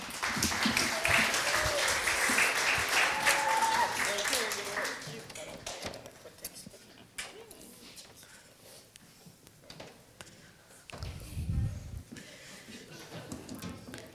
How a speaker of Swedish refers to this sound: Tack, nu får ni alla de här en stor applåd.